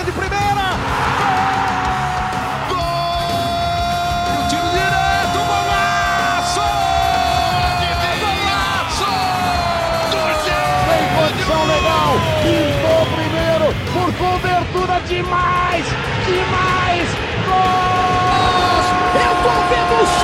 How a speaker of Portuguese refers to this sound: Fim de jogo. torcida comemorar.